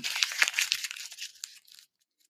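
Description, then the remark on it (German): A sheet of paper crumpled into a ball in a quick burst of crisp crackling and crinkling, busiest at first and thinning out to a few last rustles before going quiet. “Ich werde jetzt das Blatt Papier zerknüllen.”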